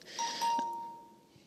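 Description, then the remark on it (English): A phone notification chime sounds once from the speaker's phone, a bright electronic ding that rings clearly and then slowly fades out over about a second, with no one talking. “that was my phone because I have not learned that in order to make a podcast, I have to turn my sound off.”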